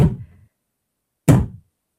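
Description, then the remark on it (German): Two heavy, separate knocks on a door, spaced a little over a second apart, each a loud close thud with a short booming decay, then silence. No voices. “An der Tür? Er ist ja auch gleich zu Ende.”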